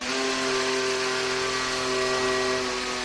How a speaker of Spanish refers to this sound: Esto, Carlos Miquel, es el Aston Martin. Es el motor Mercedes del Aston Martin, lo han arrancado hoy. Siempre es un momento muy especial porque es el ensamblaje completo del AMR 24, el coche que estrenará en el circuito de Silverstone